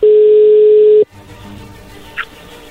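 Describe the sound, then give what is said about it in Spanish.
A telephone ringing tone sounds on the line as a call goes through: one loud, steady electronic burst lasting about a second, then cuts to a quiet, hissy phone line with faint background rustling. “Ahí cálmense, a ver, ahí ya entró la llamada, no hagan ruido”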